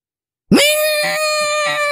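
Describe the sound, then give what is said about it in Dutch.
After a brief silence, a voice imitates a roaring Ferrari engine, with one loud, high-pitched drone that sweeps sharply up at the start and holds steady, slightly pulsing, to the end. “hoe zit het nou met de toekomst van eh, Ferrari als alles elektrisch moet? zien. want dan kan dat geluid”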